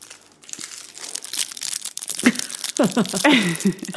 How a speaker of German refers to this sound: So, ich knister jetzt und esse einen Lolli, 90er Jahre Lolli.